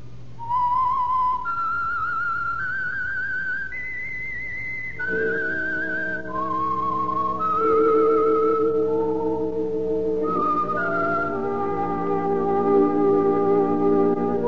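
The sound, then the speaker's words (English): A melodic whistled tune, a radio program's theme signal, in steady stepwise notes rises and falls clearly, then continues over sustained orchestral chords in the second half, loud with no talking. “That whistle is your signal for the Signal Oil Program, The Whistler.”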